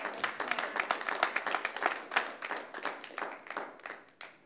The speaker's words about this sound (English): You can clap that up.